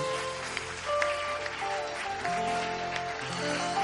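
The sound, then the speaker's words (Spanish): An audience applauds steadily in praise of God during worship, a dense wash of clapping that holds at a constant loudness alongside sustained musical chords and bass notes throughout. “Dale fuerte ese aplauso al que es digno de alabanza.”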